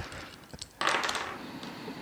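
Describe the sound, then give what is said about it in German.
A couple of light taps, then a sharp clatter as a die with a zero on it tumbles and rattles across a hard tabletop, settling into a fading rolling sound. Fairly quiet, with no talking. “Tu so, als würdest du würfeln.”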